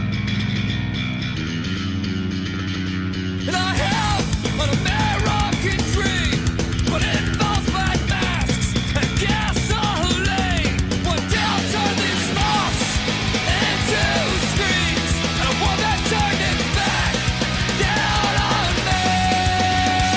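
Loud, dense music kicks in after a quiet intro, carrying harsh, strained vocals that sound like angry screaming over heavy driving instruments for the rest of the passage.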